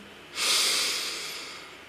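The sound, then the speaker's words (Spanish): A single long, deep breath drawn in through the nose during a meditation practice, an airy hiss that swells quickly and then slowly fades over nearly two seconds, with no talking. “Inhala con profundidad.”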